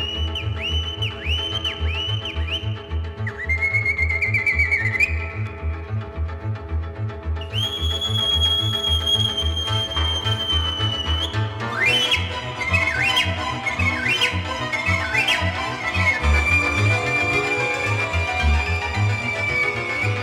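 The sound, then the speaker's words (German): An ancient Greek pan flute (syrinx) plays high, breathy whistling notes with bird-like trills and glides, over a steady rhythmic low accompaniment that continues throughout, with no voices. “denn die Urflöte, mit der sich Vogelgesang ausgezeichnet wiedergeben lässt und mit der die Urgefühle des Menschen zum Klingen gebracht werden, Liebe, Sehnsucht, Klage, sie heißt bei den alten Griechen ebenfalls Syrinx.”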